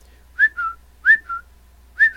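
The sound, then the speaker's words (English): A person whistles an imitation of chirping birds: three quick two-note tweets, each a rising high note dropping to a slightly lower one, fairly loud with short pauses between and no talking. “the little chirpy birds started flying around their head chirping.”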